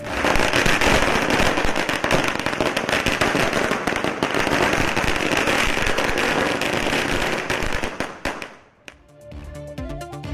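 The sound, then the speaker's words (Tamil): A long string of firecrackers bursts in rapid, dense crackling, loud, for about eight seconds, set off by Gokulraj's family celebrating the Madurai special court verdict in his murder case, before abruptly stopping, leaving a quieter tonal sound at the end. “பட்டாசு வெடித்து இனிப்பு வழங்கி வழக்கறிஞருக்கு மாலை அணிவித்து மகிழ்ச்சி”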